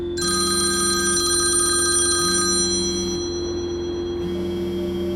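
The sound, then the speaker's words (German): A telephone rings repeatedly in a steady electronic pattern, with short pauses between rings, over a constant low hum. Nobody speaks. “Das Telefon klingelt.”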